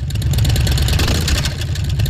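A motorcycle engine revs loudly, a steady throaty rumble with rapid pulsing and a slight swell in the middle, with no voices over it.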